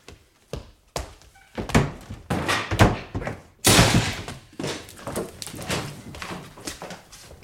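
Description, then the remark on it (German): Police break down a door: heavy thuds pound against it in quick, uneven succession, building to a loud splintering crash as it gives way, followed by scraping and clattering movement. “Wenn Sie jetzt nicht aufmachen, brechen wir die Tür auf!”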